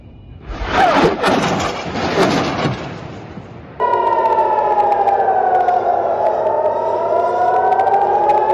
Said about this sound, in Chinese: 就在哈马斯武装分子发射火箭之后，加沙和台拉维夫也响起空袭警报。